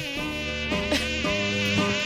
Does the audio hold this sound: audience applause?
no